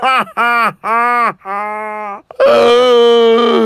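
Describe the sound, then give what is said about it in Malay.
A person imitates an owl with a run of five voiced hoots, three short ones and then two longer, drawn-out ones. The final hoot is the loudest and wavers slightly in pitch. “Burung hantu. Uh, uh, uh, uh, uh, uh, uh.”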